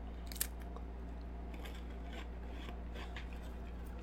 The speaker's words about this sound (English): I'll mute for the chewing noises.